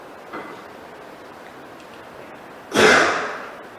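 A single sharp sneeze bursts out near the end, loud, with a brief breathy rush that fades quickly. A faint, short sound comes earlier; otherwise it is quiet and nobody speaks.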